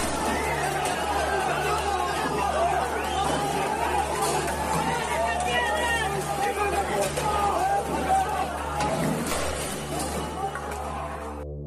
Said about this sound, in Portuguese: O que acabamos de ouvir agora há pouco foram áudios dos protestos na Bolívia, Desde o dia 20, o país passa por uma série de manifestações por conta da eleição de Evo Morales.